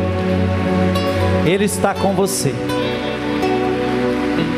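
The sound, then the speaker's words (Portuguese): Audience applause, a dense steady wash of clapping that fills the whole clip at constant loudness, while a voice speaks briefly over it and a sustained musical tone hums underneath. “Pode aplaudir.”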